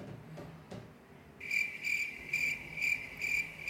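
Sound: crickets chirping sound effect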